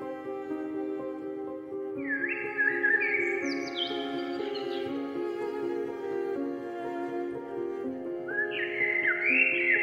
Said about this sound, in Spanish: Y deja que se acerquen a ti los pájaros, atraídos por tu energía, por la música, por tu sentir, y que los escuches. el sonido de la naturaleza, renovadora y potente.